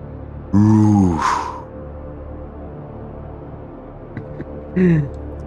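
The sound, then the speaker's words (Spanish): A voice imitates a zombie's deep guttural grunt, a loud drawn-out groan rising in pitch, followed a few seconds later by a second, shorter grunt, with no other talk. “De nuevo, de la boca de este cadáver animado sale un sonido parecido a”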